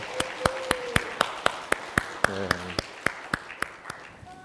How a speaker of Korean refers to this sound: 우리 아이들을 좀 사랑하고 축복하는 마음으로 좀 박수를 좀 격려할까요? 예.